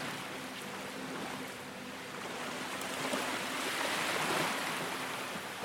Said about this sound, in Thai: หลับตาลงสิครับแล้วมาฟังเสียงคลื่นไปด้วยกัน